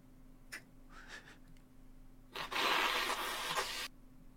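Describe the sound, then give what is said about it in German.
Someone blows their nose into a tissue: a few soft rustles and sniffs, then one long, loud, breathy honking blow lasting over a second before it cuts off. “Ich muss mir eben kurz die Nase putzen.”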